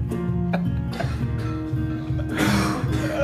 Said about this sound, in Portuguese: comecei a tossir aqui. Começou a tossir. Posso fazer pergunta bomba então enquanto você termina a sua crise de tosse?